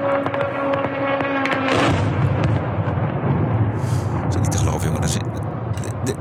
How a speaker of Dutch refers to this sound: Eh, ik zag ook nog een kamikaze drone. Ja. Eh, dat klinkt zo. Ze proberen die, dat kamikaze drone proberen ze kapot te schieten. Het lukt niet.